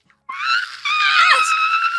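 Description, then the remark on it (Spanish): A woman lets out one loud, sustained, high-pitched angry scream lasting under two seconds, imitating a real outburst, with a brief break midway before it carries on. “Y el otro día grité porque ya no puedo”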